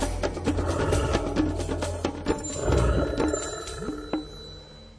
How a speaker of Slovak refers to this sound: Vy už veľmi dobre viete, vďaka zvučke kalendára prírody, čo nás čaká v najbližších minútach vysielania Rádia Lumen.